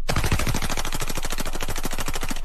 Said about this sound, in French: il tire à grands coups de mitraillette sur des canettes de Budweiser avec un message extrêmement clair et pas light pour deux ronds.